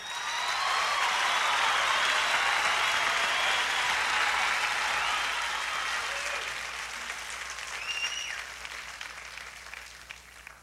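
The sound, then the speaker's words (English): A concert audience applauds steadily for about ten seconds after a band member, who plays banjo and guitar, is introduced. The clapping is loud and dense at first, then gradually thins and fades as it winds down. “His name's ….”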